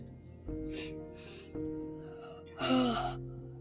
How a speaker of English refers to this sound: Whoa, big yawn.